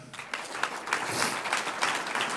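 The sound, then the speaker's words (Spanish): A church audience breaks into sustained applause for the Lord, a dense wash of many hands clapping at once with sharp individual claps poking through, steady and moderately loud throughout. “Un aplauso al Señor.”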